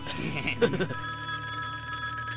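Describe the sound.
A telephone rings with a steady, buzzing electronic tone that holds for over a second, following a short burst of muffled voices and clatter.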